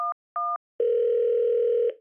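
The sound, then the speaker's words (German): Two short electronic beeps followed by a steady, unbroken telephone dial tone as a call is placed to the chief of the volunteer fire brigade of Wassenach; it hums for about a second before cutting off. No voices, just the clean, fairly loud tones. “Den Chef von der Feuerwehr habe ich übrigens schnell mal angerufen”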